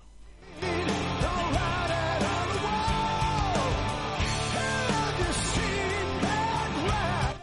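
Heavy metal music plays loud and dense for several seconds, a thick wall of driving band sound with a soaring melodic vocal or lead line riding on top.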